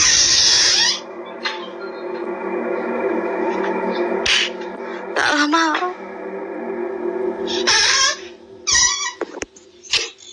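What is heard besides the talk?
wardrobe door creaking open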